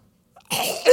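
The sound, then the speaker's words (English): A person mimics their son's harsh, barking croup-like cough from the middle of the night: one rough, raspy burst lasting about half a second that swells again at the end, fairly loud, with no speech. “It was like this like wretched cough thing, and he's I, I, I can't breathe.”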